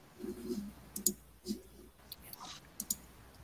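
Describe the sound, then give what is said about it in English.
Several sharp, quiet clicks land at irregular intervals as the up-arrow and enter keys are tapped repeatedly on a keyboard, with a low murmur of voices underneath. “I'm just hitting up, enter, up, enter, up, enter.”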